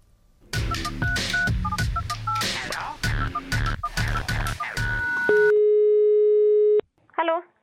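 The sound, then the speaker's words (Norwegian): A rapid series of telephone keypad tones as a psychiatric ward is dialed, followed by a steady ringing tone on the line and a brief burst of sound as the call connects. “dette er Fritz Viritsekk som ringer”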